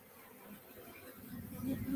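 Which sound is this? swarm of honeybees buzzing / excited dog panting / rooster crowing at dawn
swarm of honeybees buzzing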